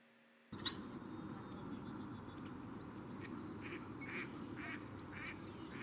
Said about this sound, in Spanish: Quiere decir que han llegado de otros lugares y se han establecido acá en Colombia. Pues se consideran como raras, ¿no? Está el ganso egipcio, el pato doméstico que lo acabamos de escuchar